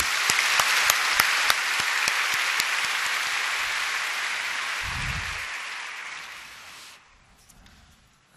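A large crowd claps steadily for about seven seconds for a visiting music mission team from Uganda after their praise performance, a dense wash of many hands with a few sharp claps standing out, then the applause fades away into quiet.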